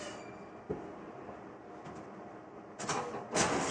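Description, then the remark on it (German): An office printer runs with a steady mechanical whir and rattle as someone tries to print a document, then two louder bursts of feeding noise near the end, with no one talking. “Ich gucke jetzt mal nach dem Drucker. Genau, wir versuchen nämlich das auszudrucken und ich glaube, da ist kein Papier drin.”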